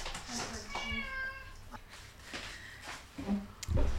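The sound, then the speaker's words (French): A male cat begging for food lets out one long, drawn-out meow, rising then trailing off, followed by a few soft shuffles and a brief thump near the end. “Tu nous as eu à l'usure, Minou”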